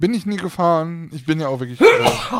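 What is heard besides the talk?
sneeze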